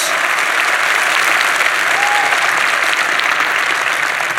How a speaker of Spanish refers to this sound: Dale más fuerte el aplauso al Señor. No, gloria a Dios.